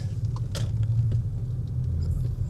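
Steady low rumble of dense road traffic at a large construction site where about seven lanes merge into one, with cars coming from all directions and many trucks; engines drone continuously with a few brief higher clicks and hisses on top, no voices present.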